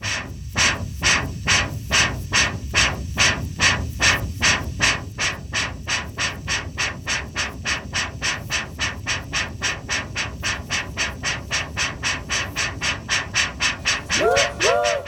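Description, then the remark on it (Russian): A train pulls away with a steady, rapid chugging rhythm of loud clacks over a low rumble, and a brief whistle-like tone rises near the end. “Это поезд пошел.”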